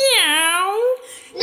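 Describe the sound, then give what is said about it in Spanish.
A single drawn-out meow, voiced by a person imitating a cat in a sung story about a rooster, rising then sliding down in pitch with a bright nasal tone, loud, followed by a brief quiet tail. “no, Bartolito, eso es un gato.”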